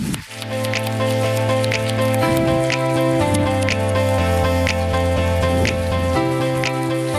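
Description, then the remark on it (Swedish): Steady crowd applause with a dense patter of clapping, carried over loud walk-on music with sustained chords, holding at an even level throughout as three guests are welcomed onto the stage. “Så att jag vill verkligen att vi ger dem en enormt stor varm applåd och välkomnar dem upp här på scen.”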